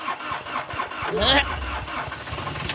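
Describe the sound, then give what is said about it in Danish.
A pirate ship's engine cranks and catches with a rising whine, then settles into a low, steady rumble that continues fairly loud. “Tag nu en sodavandsgløk, så tænder jeg for motoren.”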